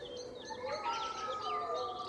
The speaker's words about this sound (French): Quelques oiseaux s'alarment de cette menace qui pèse soudain sur la forêt.